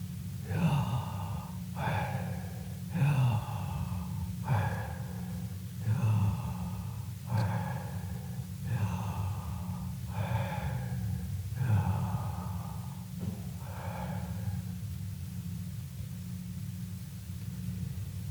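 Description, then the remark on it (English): A voice repeats a breathy, airy sound imitating inhaling and exhaling, pronouncing the Hebrew consonants of the name Yahweh, about ten steady pulses at an even rhythm over a low rumbling background, fading out near the end. “And in fact, if correctly pronounced, they perfectly replicate the sound of inhalation and exhalation.”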